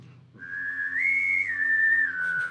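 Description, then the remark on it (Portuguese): A person whistles a cricket imitation with the mouth: one sustained, fairly loud high tone that steps slightly up and back down in pitch, with a faint buzzy edge and no talking. “Aí eu aprendi o... que é o grilinho, o...”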